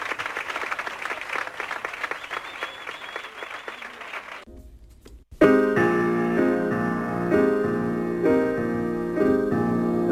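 An audience claps in a dense, steady burst of applause for several seconds, then it cuts off abruptly; after a brief silence, loud music with sustained tones takes over.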